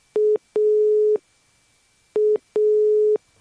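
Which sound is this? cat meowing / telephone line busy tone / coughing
telephone line busy tone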